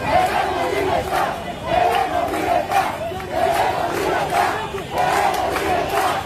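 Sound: protest crowd chanting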